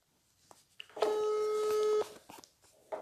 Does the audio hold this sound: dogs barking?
no